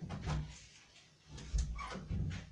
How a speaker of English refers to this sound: my door is like making a noise, so I'm gonna like put something to block it. Wait. Stupid door.